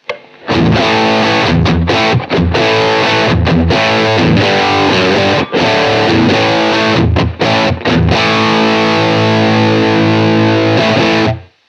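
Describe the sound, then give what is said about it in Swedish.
A heavily distorted electric guitar played through a Lion amplifier in high-gain mode plays loud chugging riffs and sustained chords for about eleven seconds, with brief stops between phrases and no talking. “hur låter det på liksom mer high gain-läget på Lion nu då?”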